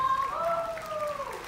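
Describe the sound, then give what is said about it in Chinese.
Steady applause from a large audience at a lecture in a very large venue, welcoming colleagues: a dense, continuous patter of many hands clapping at an even loudness, with a thin tonal voice-like sound drifting over the top. “好，也要从我们再次掌声欢迎同事。”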